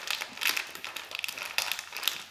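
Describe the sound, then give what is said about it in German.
Snack bags crinkle and rustle as they're torn open, a close, fairly soft stream of irregular crackly bursts with no talking over it. “Komm, ich muss meine Tüten noch aufreißen, aber du kannst ja schon mal anfangen und den Leuten was sagen.”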